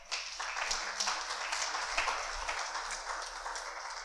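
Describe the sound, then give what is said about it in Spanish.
A church audience applauds for the Lord during a sermon, a dense, steady wash of many hands clapping that holds at an even level for several seconds without pause, with no voices rising above it. “Dele un aplauso al Señor.”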